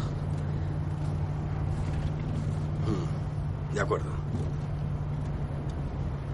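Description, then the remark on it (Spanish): A steady, low engine rumble from a patrol car on the move, leaving a crossroads, fills the whole stretch, with a short spoken phrase from a person briefly rising over it midway. “En el coche patrulla. A la salida del cruce.”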